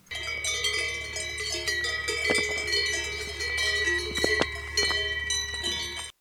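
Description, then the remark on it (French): Several cow bells on grazing cows in an alpine pasture clang and jingle irregularly, overlapping at different pitches, over a steady low outdoor hum, with no voices. “Mais non, j'ai choisi de vous parler des cloches des vaches, puisque ce doux son m'a suivi la quasi-totalité des huit jours passés à pédaler dans les alpages.”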